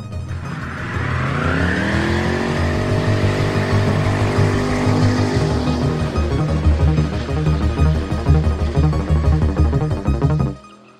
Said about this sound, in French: À son propre mariage, qui voulait quitter l'église en faisant fumer les roues de la Mustang de son ami Gaëtan Giroux.